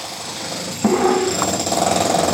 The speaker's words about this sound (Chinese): 我跟他们说，师傅啊，那个电钻是哪里的桥啊？